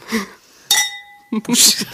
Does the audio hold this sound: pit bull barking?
no